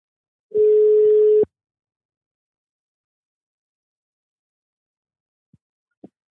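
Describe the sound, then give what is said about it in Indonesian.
A single steady telephone ringback tone sounds for about a second as a call is placed to a friend, followed by silence and a couple of faint clicks on the line. No one speaks. “Oh, coba kita telepon yeah, aja.”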